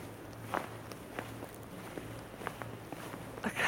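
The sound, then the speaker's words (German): Footsteps crunch steadily through fresh snow while it is snowing in Hamburg, a soft crackling step roughly every half second over a low steady hum, with no one speaking. “Es schneit. Und Hört ihr das Knistern? Warte, wir machen das mal leise.”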